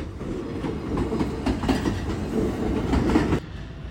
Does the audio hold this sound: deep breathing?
no